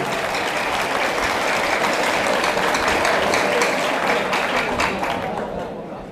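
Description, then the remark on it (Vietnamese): An audience gives a steady round of applause to honor the spirit of the learners, dense overlapping claps holding an even, loud level for several seconds before tapering off slightly at the end. “và nếu thấy được điều đó và cảm thông được điều mà chúng tôi chia sẻ thì mong các quý anh chị hãy dành một tràng vỗ tay để đề cao cái tinh thần học viên của mình”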